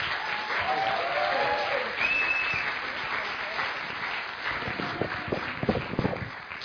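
An audience at Liberty Church applauds visiting guests during a morning service, in a sustained burst of clapping that fills the room, with a few whoops and cheers rising over it and individual claps standing out near the end.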